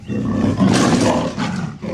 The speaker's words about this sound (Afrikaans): Maar toe, skielik, steek sy vas en gee 'n harde brul.